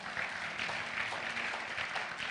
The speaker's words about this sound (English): Give the Lord a mighty clap of it.